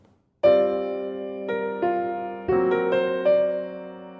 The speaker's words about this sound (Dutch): Eh, en het eerste thema wat ze erover zingt, dat horen we meteen eh, eigenlijk in de, in de eerste minuut van de opera. Dat is heel kort en dat klinkt zo.